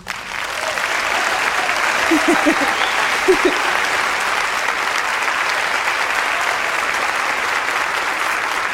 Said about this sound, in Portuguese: Primeiro eu quero agradecer ao … e o … que fizeram essas músicas tão lindas, tão lindas. Eu não vou nunca cansar de agradecê-los. Esses que a gente pode aplaudir assim.